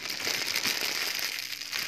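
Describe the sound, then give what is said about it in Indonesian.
A polypropylene plastic bag crinkles continuously, a dense, crisp rustling with sharp crackly snaps, steady and fairly loud throughout with no voices. “tapi kalau yang PP kalau yang uh, apa kantong plastik dari PP uh. dia lebih kriuk gitu loh bunyinya”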